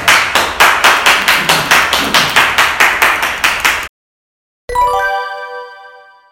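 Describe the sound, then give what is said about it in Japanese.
Steady, evenly paced clapping fills the first four seconds with no talk, then stops abruptly; after a short silence a bright bell-like chime rings out and slowly fades. “はいじゃあ皆さん拍手お願いします”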